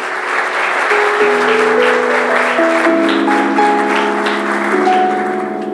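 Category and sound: crowd, audience applause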